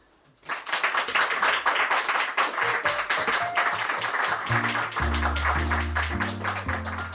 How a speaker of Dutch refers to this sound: Applaus